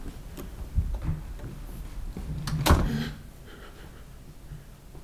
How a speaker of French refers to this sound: La porte s'ouvre maintenant.